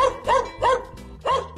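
small dog barking

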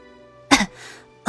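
low cough

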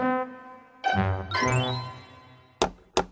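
knocking on a door

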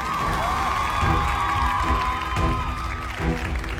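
applause and cheering

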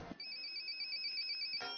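telephone ringing

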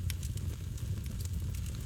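crackling campfire

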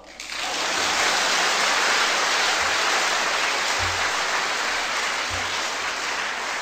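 audience applause

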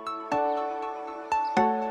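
doorbell ringing

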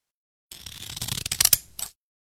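scissors cutting hair

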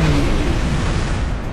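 explosion sound effect

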